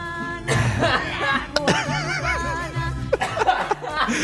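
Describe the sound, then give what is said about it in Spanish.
Several sharp, harsh coughs break out in an uneven fit, tangled with bursts of laughter from other people. “Voy a llegar a los 24, con esta tos.”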